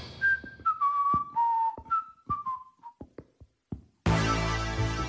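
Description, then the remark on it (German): A man whistles a short descending tune as he walks through an office building, accompanied by regular soft thuds like footsteps, which then continue alone before a sudden loud burst of noise cuts in at the end. “Abführmittel im rote bete und nun geht er pfeifend durchs Haus.”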